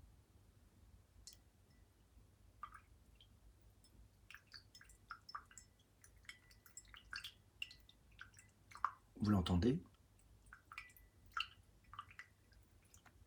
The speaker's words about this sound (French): C'est un peu d'eau.